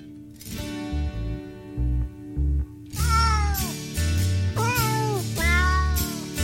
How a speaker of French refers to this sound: on écoute euh, les petits chats qui chantent Silent Night